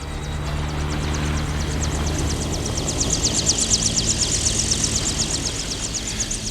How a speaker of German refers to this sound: Ganz in der Nähe des Altars gab es eine freie Fläche, auf der keine Ruinen oder Steinquader standen. Wie riesige schwarze Insekten umkreisten die Hubschrauber den Platz und sanken schließlich herab.